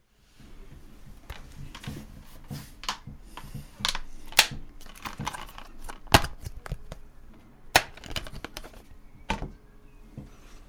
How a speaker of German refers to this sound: Ich habe ein Spiel aus seiner Verpackung geholt.